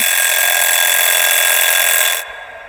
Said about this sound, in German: Meine Eieruhr meldet sich zu Wort und weist mich auf das Ende der Garzeit hin.